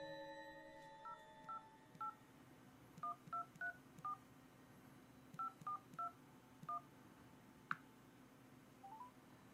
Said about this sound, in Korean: 어떤 사정이 있지 않았을까라는 생각에 이번엔 내가 전화를 걸어 잘못된 번호라고 알려주기로 마음먹고 다이얼을 눌렀다.